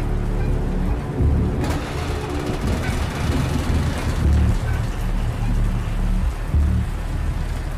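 Steady heavy rain pours down in a video game storm at night in a dense, continuous hiss, with a deep rumbling drone underneath and occasional low thumps, with no voices.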